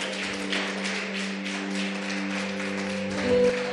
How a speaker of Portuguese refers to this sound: Se você recebe Cristo, aplaude o Senhor bem forte, meu irmão, bem forte.